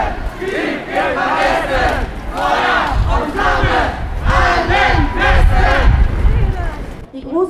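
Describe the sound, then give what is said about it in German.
A large crowd at a street demonstration outside Moabit prison in Berlin chants loudly and rhythmically in unison, in several languages, many voices rising and falling in repeated shouted phrases, with a dense, continuous murmur of people underneath. “Und im Folgenden werdet ihr eine Menge Eindrücke von dieser Demonstration hören.”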